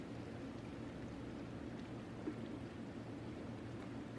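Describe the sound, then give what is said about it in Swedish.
A car engine idles steadily outdoors on the sidewalk outside the premises of JMac Naturally Limited, a low continuous rumble with a faint rhythmic throb, fairly quiet, with no voices. “i det att du hör det här tumgångsljudet, en bil som då måste stå på trottoaren utanför JMac Naturally Limiteds lokaler”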